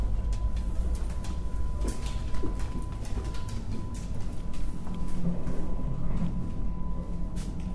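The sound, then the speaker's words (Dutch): A train arriving at its final destination rolls along with a deep, steady rumble and a rhythmic clatter of wheels over rail joints, while a thin, constant whine sits above the noise. No one speaks. “Nou, en hier kom ik aan op mijn eindbestemming.”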